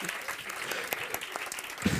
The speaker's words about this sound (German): Ein Applaus für dich, ne?